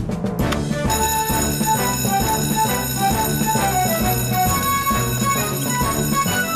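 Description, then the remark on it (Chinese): A fire alarm bell rings loudly and continuously for a real fire at a restaurant, a steady metallic clangor with a harsh, high-pitched tone that holds without pause over a dense, pulsing background. “这次不是假警报”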